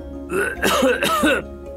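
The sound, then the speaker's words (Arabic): A voice acts out a short run of three rough, throaty coughs in quick succession, moderately loud, with no talking around them, as dust flies into his face while he dusts off furniture. “وفي الجانب الآخر عصب جحا رأسه وربط حول جسده رداء تنظيف الغبار الخاص بكريمة ثم أخذ يدندن وينفض الغبار عن قطع الأثاث فتطاير الغبار في وجهه واخذ يسعل ويسعل كخروف اصابه البرد”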